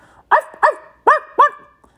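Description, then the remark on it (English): A dog barks four times in two quick pairs, the loud barks separated by short pauses, with no one talking. “What's that, Lassie?”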